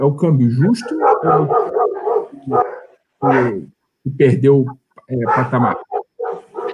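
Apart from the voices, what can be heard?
dogs barking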